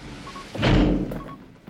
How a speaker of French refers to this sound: Faut grincer les gonds de la porte, là.